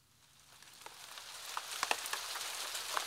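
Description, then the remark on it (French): Steady, pouring rain hisses in a dense wash that swells gradually louder, with scattered drops pattering and ticking sharply on a surface. No voices. “Te voici dehors, la pluie battante.”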